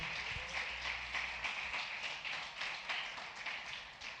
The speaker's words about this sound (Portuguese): Aplauda o Senhor.